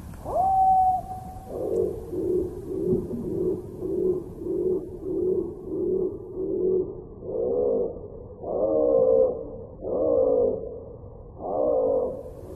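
A slowed-down blue tit song: an opening drawn-out tone, then a steady series of low, pulsing notes that swell into longer, growling moans, deep and eerie, with no talking.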